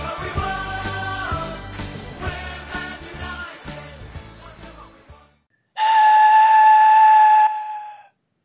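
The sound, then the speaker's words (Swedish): A steam locomotive chugs past with a heavy, rhythmic huffing, then after a brief pause lets out a loud, steady whistle blast lasting a couple of seconds before cutting off. “Lät som ett ånglok tuffa förbi här.”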